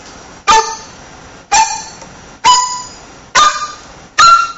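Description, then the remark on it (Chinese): A Chinese bamboo flute plays five sharply tongued notes using a combined tonguing technique, in which a tongued note and a second note, such as do and re, come out at almost the same moment. The tone is bright and reedy, the notes evenly spaced, with no talking. “他把一个吐音和一个后音放在一起，在几乎在同一个时间点出来。”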